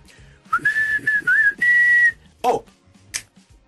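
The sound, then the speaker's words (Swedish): A person whistles a short, wavering tune of a few sliding notes, loud, followed by a couple of brief rustling thumps and quiet background noise. “Det börjar vissla.”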